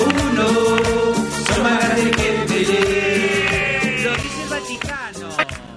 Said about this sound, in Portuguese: A gente ouviu aí a Cúmbia Papal.